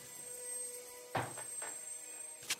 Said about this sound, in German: Gut, ja, die Tür geht auf.